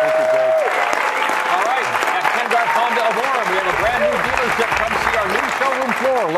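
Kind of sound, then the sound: crowd, audience applause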